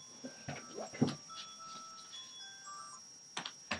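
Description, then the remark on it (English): A phone's reminder alarm plays a thin electronic melody of steady, shifting tones at moderate volume, interrupted by a few sharp clicks and knocks. No one speaks. “As far as I, ah, that's my alarm. Hold on.”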